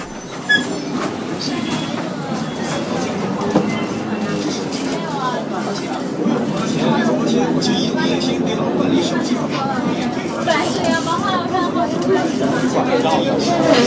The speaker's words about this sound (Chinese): 还有公交车上也是能够让你听到一座城市最原生态的一个场所，因为它就是一个社会的缩影。这里有大家回家的、上班的、游玩的，又或者别的什么，都会在公交车上集聚着。听听看，厦门的公车上有怎样的声音呢？